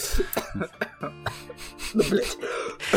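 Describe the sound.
A person coughs repeatedly up close, a rapid cluster of harsh bursts followed by a few more scattered coughs, with some brief voiced sounds in between.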